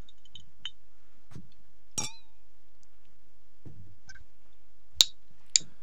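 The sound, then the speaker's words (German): Beer glasses clink together in a toast, a bright chime around two seconds in, then two sharper clinks near the end, amid quiet handling noises and no talking. “Ah, meins klingt nicht so cool.”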